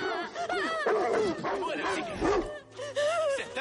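dogs barking and whimpering

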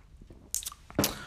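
sipping and swallowing beer

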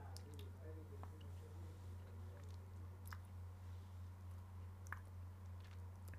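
chewing food

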